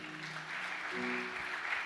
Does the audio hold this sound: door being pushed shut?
no